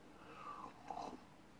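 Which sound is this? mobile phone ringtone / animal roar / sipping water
sipping water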